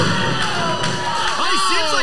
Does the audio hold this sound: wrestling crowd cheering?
yes